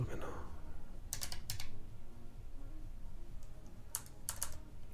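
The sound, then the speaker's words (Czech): Quick bursts of typing on a computer keyboard without a numeric keypad, clustered key clicks in two short runs, over a low steady background hum. “Já nemám numerickou klávesnici, tak jsem úplně, tak jsem úplně v háji.”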